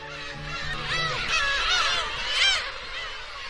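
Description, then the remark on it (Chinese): A flock of migratory birds on Snake Island in the Laotieshan National Nature Reserve, Liaoning, China, calls continuously in October, many overlapping honking, rising-and-falling cries at mid-to-high pitch, swelling louder twice, with a faint low hum beneath at the start. “蛇岛又迎来了一年中最热闹的季节，就像一个大的候鸟客栈，热情招待着今年客人的入住。”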